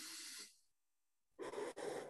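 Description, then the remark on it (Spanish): An airy breath, then a short silence before a louder, deeper breath drawn in, demonstrating a breathing exercise from a class: standing up, stretching the arms, then breathing in. No one speaks. “Entonces el clásico era que te levantabas y tenías que estirar así las manos y luego respirar”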